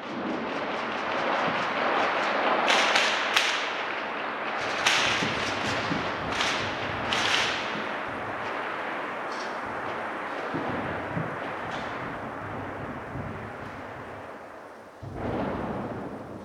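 A dense barrage of sharp cracks and heavy booms fires in irregular bursts over a constant rumbling roar during a night air attack in Odessa, recorded from a bedroom, loud, with no voices, then a brief lull before it starts again.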